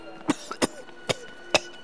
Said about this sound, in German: Dein Husten gefällt mir gar nicht, mein lieber Bruder. Das legt sich gleich wieder. Es wird nur der Schreck gewesen sein.